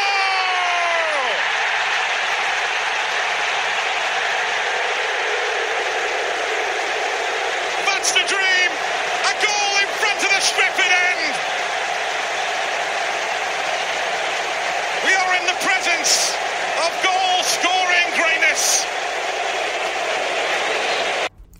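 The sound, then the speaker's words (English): A huge stadium crowd at Old Trafford roars a long, sustained "Siuuu" chant as Cristiano Ronaldo scores, a dense, loud wall of voices with scattered whistles and claps breaking through midway. “FYI, that noise you hear when Ronaldo scores, that ain't a boo, that's a sue.”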